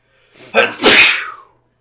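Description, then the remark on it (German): A single loud sneeze: a brief breathy intake followed by a sharp explosive burst that trails off quickly into silence. “Gesundheit.”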